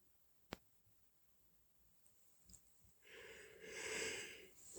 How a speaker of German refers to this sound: Noch mehr gähnen.